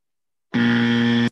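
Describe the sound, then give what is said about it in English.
A single loud, harsh electronic buzzer blares steadily for under a second, then cuts off abruptly, with silence before and after and no voices. “No, that was that was that was a, that was a self buzzer because uh, oh, I was like I was thinking something.”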